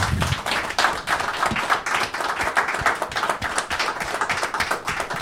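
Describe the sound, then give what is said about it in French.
An audience applauds the team of the Manufacture at the first Café Walden session, many hands clapping in a dense, continuous patter with no pauses, fairly loud throughout and no voices heard. “Oh, vous pouvez les applaudir.”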